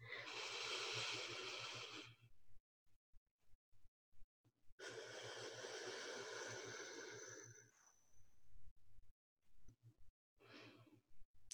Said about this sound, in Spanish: Ahora, un otro ejercicio de respiración que pueden usar. Sumamente sencillo es inhalar por siete, exhalar por siete cuentas.